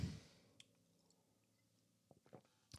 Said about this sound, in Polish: Także łyczek wody.